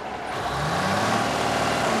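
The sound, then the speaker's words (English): A big rig's diesel engine roars up to full throttle during a state inspection near the ports, its deep growl climbing steadily in pitch and staying loud and continuous throughout, with no voices. “When you see my thumbs up, you push down your throttle, and again, all the way to the floor, real quick, ninety swing.”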